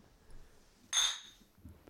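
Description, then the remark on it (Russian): A single bright clink of glasses touching in a toast while drinking, a sharp ringing tap that fades quickly, with no talking. “И все сейчас услышите. Вместе с нами чокайтесь.”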